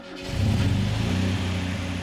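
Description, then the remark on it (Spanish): A man gets into a car and starts it; the engine turns over and catches, settling quickly into a steady, rumbling idle that stays loud for the rest of the moment, with no voices. “Y él se mete otra vez, enciende el auto”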